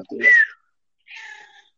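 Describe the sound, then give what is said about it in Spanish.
A cat meows twice, a short rising-and-falling cry followed after a brief pause by a second, thinner and more drawn-out meow. “Ahí con gato encima hoy día.”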